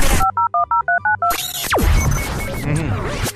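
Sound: telephone call tones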